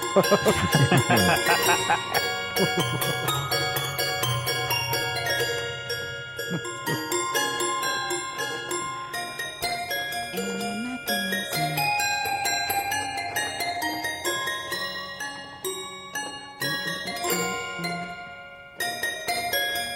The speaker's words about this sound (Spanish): Hemos pasado de intentar eh, imitar, entre comillas, mm, o no sé, o suplantar a un piano normal, a, a encontrarnos con el verdadero sonido del piano de juguete, donde, como tú dices, no Mm. podemos esperar lo mismo que de un piano normal